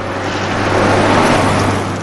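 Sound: car engine driving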